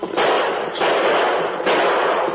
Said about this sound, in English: The fleeing bandit leader looked back and saw the masked man and Indian moving closer. He emptied his gun in their direction.